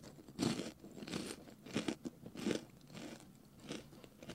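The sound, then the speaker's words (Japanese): Several crisp crunches as someone bites into and chews crunchy food, in an irregular rhythm of sharp bursts. No one speaks. “それでは食べたいと思います。”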